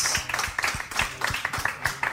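A crowd applauds the first contestant of a game with a dense, steady patter of many hands clapping at a moderate, even level for a couple of seconds, with no voices over it.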